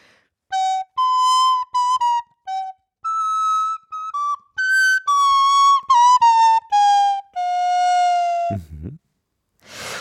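A solo recorder plays a short, clear melody of separate notes, a piece begun in G. In the short closing phrase the player bends the last few tones downward in pitch using the labium, and a brief breathy noise follows.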